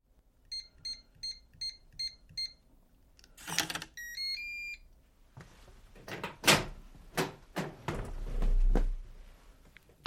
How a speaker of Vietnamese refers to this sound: Sau giờ làm, nhân vật chính tìm đến căn phòng ca trọ ở. Anh nhấn chuông nhiều lần nhưng không thấy ai ra mở cửa.